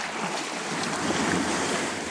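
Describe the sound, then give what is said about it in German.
Ocean waves wash against the coast of rainforest islands in a steady, hissing roar, with the surf filling the whole moment and a slight breeze mixed in. No one speaks. “Und halt diese riesigen Bäume auf den Inseln nebenan, diese Regenwald, also Regenwald und trotzdem diese, diese Küsten, wo dann halt immer die Wellen gegen prasseln.”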